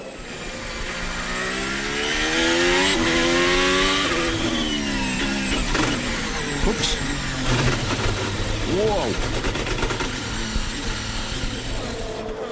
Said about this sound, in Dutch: Nou, dat is wel vrij duidelijk, hè? Bij het terugschakelen, dit is gewoon een bak die slaat als autoliefhebber doet het bijna pijn. Ja, nee, dat geluid. je ook voelt echt.